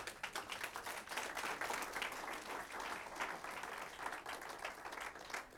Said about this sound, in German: Geben wir den beiden Burschen einen Applaus.